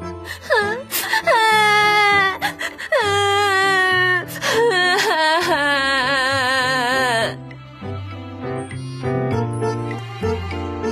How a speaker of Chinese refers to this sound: 他跑啊跑啊。一直跑到再也跑不动了，然后他哭了一会儿。